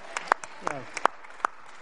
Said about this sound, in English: So let's just get ready for the appreciation and give a pre-applause.